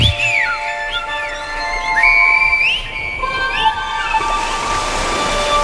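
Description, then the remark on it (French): Whistled notes in a song rise and glide over and over above a steady rushing, wind-like wash, with held tones weaving through a musical backdrop and no voices. “Et me voilà, petit géant, à siffler dans le vent.”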